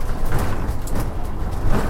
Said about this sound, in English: sorry for the background noise. I'm obviously driving.